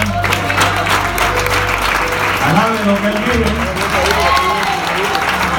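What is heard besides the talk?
audience applause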